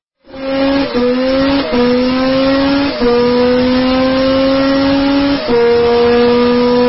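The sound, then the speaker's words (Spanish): A turbo race car engine revs loudly and steadily, not at maximum revs, climbing in pitch and dropping briefly at each gear change, four shifts in a row with no voices. “es que también escucharlo ahí, que tampoco está a máximas revoluciones”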